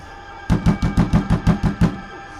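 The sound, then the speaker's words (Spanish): A quick, steady run of about eight solid knocks on a wooden door, fairly loud, with no voices, followed by a moment of quiet. “¿Otra vez? casi me da el soponcio. Será mejor que abra la puerta. Quizá solo sea una visita.”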